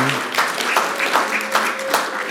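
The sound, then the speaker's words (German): A crowd applauds steadily for the Ukrainian wife of an Indian pastor as she stands up, a dense wash of many hands clapping with slight rhythmic surges, while faint voices murmur underneath. “Lasst uns ihren großen Applaus geben.”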